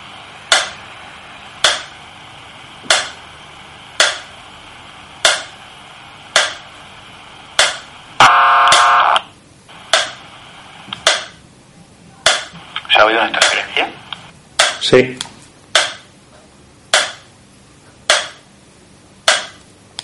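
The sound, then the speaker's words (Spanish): Walkie-talkie interference while the walkie is left open without anyone speaking: sharp, evenly spaced ticking pulses about once a second, with two louder bursts of buzzing, garbled static partway through, over a steady low hiss. “Sí, sí, lo he escuchado desde aquí, la interferencia también, un algo así, ¿no?”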